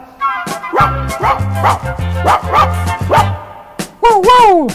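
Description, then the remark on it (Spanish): A small brown-haired dog on a collar, walked in a park, barks furiously, rapidly and repeatedly at passing people in an agitated run over a steady, thumping low bass line, then the barking gives way to a drawn-out, rising whine at the end. “Lo llevo a pasear al parque, ceñido por su collar la gente pasa yangueto, con furia empieza a ladrar.”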